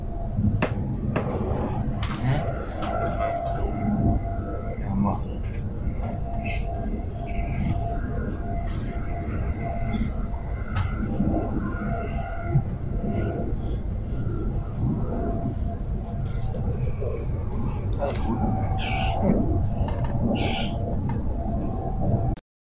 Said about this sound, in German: Wir sitzen hier der RE6 nach Hamburg-Altona im Wagen 13. Ja, jetzt können wir wieder richtig lange fahren.